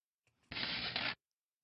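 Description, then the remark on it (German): A short, dry rustling swish, like paper being shuffled, plays alone for under a second at steady loudness, preceded by a faint, brief rustle. It is the JAWS screen reader's page-load cue as a news website loads in a web browser. “Und hier haben wir jetzt zweimal dieses Rascheln gehört und danach, kurz danach, die Meldung von Jaws, wie viele Links und Überschriften und Rahmen und so weiter die Seite hat.”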